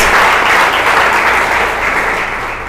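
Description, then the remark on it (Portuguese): Sustained applause from an audience at a worship service clapping for themselves, a dense, steady wash of many hands clapping at once, loud throughout and tapering only slightly toward the end, with no voices standing out. “Vamos aplaudir agora.”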